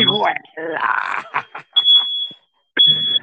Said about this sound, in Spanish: la, alarma de incendio. Ey, más andamos on fire que hasta la alarma.